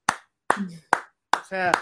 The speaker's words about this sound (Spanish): Lo único que me pongo de pie y, y te aplaudo.